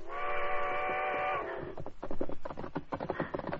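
A steam train blows a long, loud whistle as the sun sits above the horizon, then starts chugging away with rhythmic puffs of steam that repeat steadily as it begins to move.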